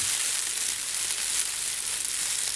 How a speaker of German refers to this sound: Und wenn ich das so ein bisschen knautsche in den Händen, dann hört sich das so ein bisschen an wie Regen.